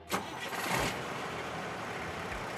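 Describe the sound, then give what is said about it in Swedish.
A heavy truck tractor unit engine, hot-wired, cranks and fires up with a loud burst, then settles into a steady, rumbling idle. “Sen startar han den och kopplar på släpet med allt kaffe.”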